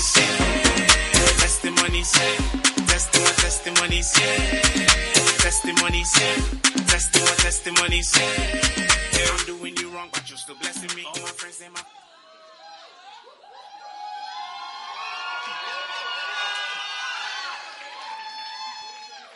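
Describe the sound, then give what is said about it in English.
A crowd claps and cheers loudly over a pounding musical beat at testimony time, welcoming a man up to speak, then the applause fades into scattered voices and murmured chatter from the gathered people. “So I want you to clap your hands one more time and welcome our brother”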